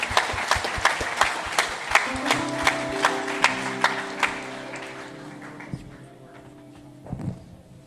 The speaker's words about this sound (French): Ouais, on peut les applaudir.